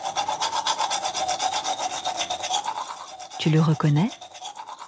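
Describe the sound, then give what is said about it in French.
Rapid, steady scrubbing of a toothbrush against teeth, a rhythmic bristly rasp repeated back and forth; near the end a voice briefly speaks over it. “Oui, c'est le bruit qu'on fait quand on se brosse les dents.”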